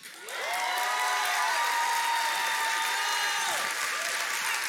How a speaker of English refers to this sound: Now, I am so, y'all some trained church folks. That was the best courtesy clap and scream ever.